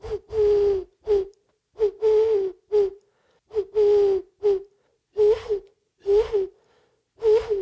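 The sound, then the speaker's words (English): A person whistles an imitation of an owl's hoot, about a dozen breathy, hollow hoots in short uneven bursts with brief gaps, fairly loud, no talking. “So this is the owl.”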